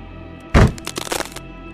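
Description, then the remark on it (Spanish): A heavy stomping thud as a foot is dropped with full force onto a man's face, followed by a burst of brittle crunching and cracking of his skull breaking, lasting under a second before stopping; no one speaks. “El ataque fue tan devastador que pude escuchar cómo se quebraba su cráneo.”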